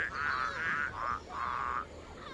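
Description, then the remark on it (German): A mobile phone ringtone made of frog croaks, sounding for an incoming call: about five raspy, buzzing croaks in a quick, steady run, clear, with no voices over them. “Was war denn das für eine Amphibie? Ihre Handy Herr Fröschel.”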